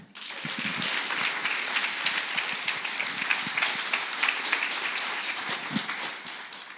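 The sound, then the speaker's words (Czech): An audience at a Czech church gathering applauds to welcome speaker Martin Pence, a dense wash of many overlapping claps that holds at an even, fairly loud level for several seconds and eases slightly at the end. No one speaks. “Prosím, přivítejte Martina Pence.”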